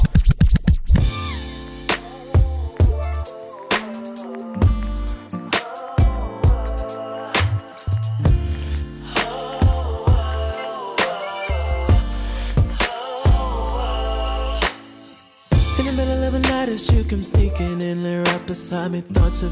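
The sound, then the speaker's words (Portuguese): A produced album track plays loud and continuous, with deep booming bass hits, a steady rhythmic beat and layered melodic tones throughout, with no singing or talking. “é a faixa 15 chamada de …”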